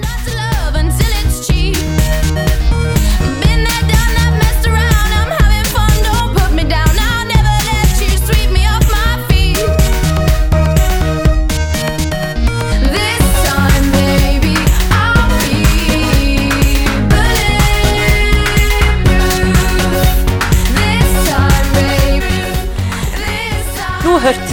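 An upbeat synth-pop song plays loudly and steadily, with a pulsing beat, heavy bass and bright layered synthesizer melodies continuing without a break.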